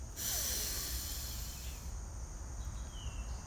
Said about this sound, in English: We'll take our three deep breaths. We breathe in, hold for a moment, then release with a loud, audible sigh, an extended sigh.